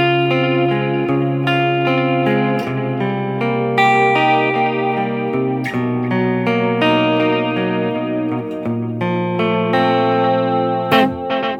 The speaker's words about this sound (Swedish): Och du hör ju också när du spelar ackord så blir den här liksom pseudo-reverb-känslan. Mm. Eh, slår du till, ja då hör du, då hör du rytmiken, men om du bara spelar så